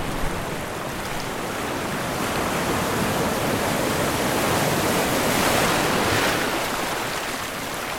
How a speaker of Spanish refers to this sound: Y por supuesto, el sonido del mar, que contiene a la isla y a la vez la deja tan lejos de todo. El sonido del, mar, que en las cuatro paredes que tenemos es puro mar.